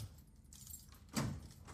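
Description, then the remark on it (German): Quiet handling sounds with a faint jingle of keys, then a single sharp clunk as a door is unlocked and pushed open, followed by soft rustling. No one speaks. “Ah, ich hatte ja gestern ein bisschen Bedenken, dass ich die Tür nicht aufkriege, weil sie ja gestern auch nicht zuging.”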